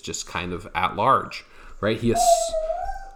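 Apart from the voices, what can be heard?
dog barking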